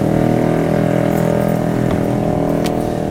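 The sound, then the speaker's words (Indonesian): A trail motorcycle's engine roars loudly and steadily as it passes by, a harsh buzzing drone with a slight pitch shift, no voices audible. “terlalu berisik ada motor trail lewat”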